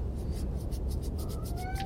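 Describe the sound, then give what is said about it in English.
A cat lets out a brief, rising meow near the end, heard over a steady low rumble and a repeating soft scratchy rustle. No one speaks. “So when they're not making me sleep like a pretzel in bed, uh, the cats have taken up residence in the record store, which I got.”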